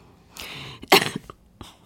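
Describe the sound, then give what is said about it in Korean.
A sudden, forceful cough bursts out, preceded by a quick breathy intake, then a faint short aftersound; no talking. “어, 갑자기 기침이 확 나왔어요.”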